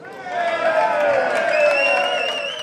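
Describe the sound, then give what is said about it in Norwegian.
A crowd of Swiss football supporters cheering their players and chanting outside a stadium, a dense, sustained roar of many voices with rising shouts and whistles, steady and fairly loud throughout. “Mens sveitsiske supportere jublet for spillerne sine på utsiden av stadion,”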